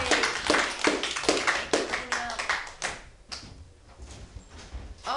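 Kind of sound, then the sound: crowd, audience applause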